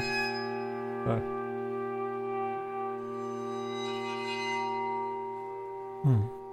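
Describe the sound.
Large iron plates, played as an instrument, are bowed into a sustained, ringing drone rich in shimmering overtones, holding steady throughout, broken by two brief bumps; someone says a single short word.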